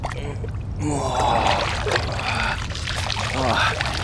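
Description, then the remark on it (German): Water splashes and pours, sloshing continuously as someone rises out of a cool bath, with streams running off and dribbling back down throughout. “Aber Frau, ich bade gerade und genieße die Kühle des Wassers.”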